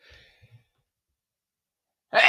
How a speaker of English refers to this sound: I'm not editing that out. I hope you guys heard that sneeze. Ugh. That's what people want to hear,